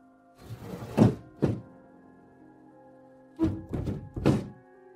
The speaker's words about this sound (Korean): 창문이 듣기 싫은 소리를 내며 마지못해 열렸다.